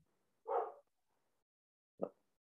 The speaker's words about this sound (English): I've got a dog barking